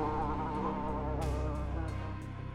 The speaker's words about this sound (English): It just sort of pops like a pimple, uh, and it sort of buzzes and flaps and drops to the ground.